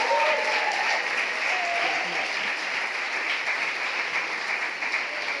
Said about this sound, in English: can we just give them a massive clap for what they do and, and honour them?